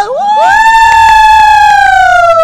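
A crowd screaming and cheering sound effect played on a show to welcome a guest: a loud, high-pitched shriek sweeps upward and holds steady for about two seconds, sagging slightly at the end, with a faint rattle of clapping and cheering beneath it.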